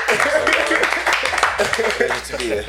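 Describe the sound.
A round of applause welcoming guest Kevin Lisbie: a dense, steady patter of clapping that holds for a few seconds, mixed with whooping and voices talking and cheering over it.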